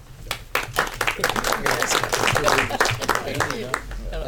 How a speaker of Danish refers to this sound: Så alle er med på, at Raiders of the Lost Ark egentlig ikke er den første film, Nej. selvom det er den første film. Så tog jeg fejl. Er alle enige i det, så må I gerne klappe.